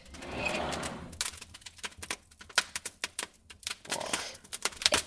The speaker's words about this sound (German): Boah, der Kamin, so der Kamin zündelt. Hört euch das mal an. Ich liebe so das.